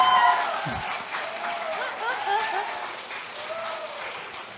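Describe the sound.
A crowd applauds steadily for several seconds, a dense wash of clapping that stays fairly loud throughout, with scattered voices calling and cheering over it.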